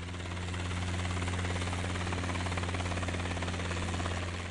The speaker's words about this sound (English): Peter Salter sets off in his helicopter again to lay traps for the afternoon.